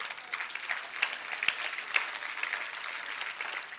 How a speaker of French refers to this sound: Est-ce qu'on peut applaudir notre équipe maison?